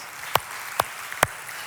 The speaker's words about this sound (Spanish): Este aplauso también es para ustedes.